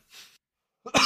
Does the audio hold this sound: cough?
yes